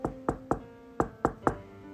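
Rapid, urgent knocking on a door by two sisters: two quick sets of three sharp raps separated by a brief pause, each knock hollow and resonant with a ringing tail, no voices.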